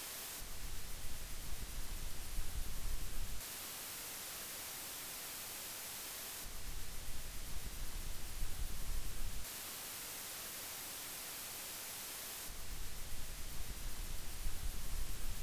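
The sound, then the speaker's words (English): Steady electronic hiss from the noise floor of two microphone preamps with a 150 ohm resistor connected in place of XLR cables, switching about every three seconds between a brighter, airier hiss and a duller version carrying a low rumble underneath. No voices or other sounds. “And now I'm going to remove the XLR cables and connect a 150 ohm resistor so we can directly compare the noise floor of the preamps.”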